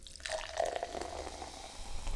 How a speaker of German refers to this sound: Ähm, aber ich gieße dir davon einfach mal ein Stückchen ein.